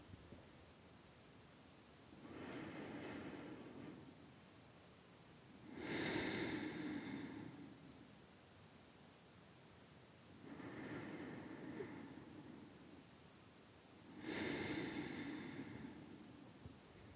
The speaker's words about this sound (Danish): Når vi starter spejlet, så tænker jeg, at du bare starter med at lukke dine øjne og tage nogle dybe vejrtrækninger helt ned i maven.